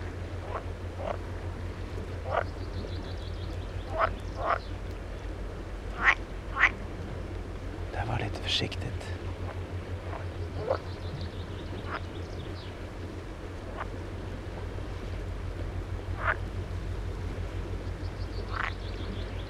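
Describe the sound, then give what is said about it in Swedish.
Pool frogs calling from a pond on Örskär, a series of short, sharp croaking bursts at irregular intervals, some loud, others fainter, over a steady low hum of background noise. “Gölgrodorna på Örskär”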